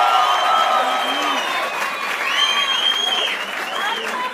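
Audience applause for the evening's cast as they are introduced, a dense, steady wash of clapping that holds at full strength throughout, with scattered whistles and shouted cheers rising above it.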